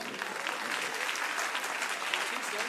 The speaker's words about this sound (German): Komm, gib den beiden mal einen Applaus.